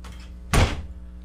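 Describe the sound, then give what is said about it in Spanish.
A door shuts once with a solid, heavy thud as someone leaves through it, its low boom fading quickly into quiet with a faint background hum. “salió por la puerta.”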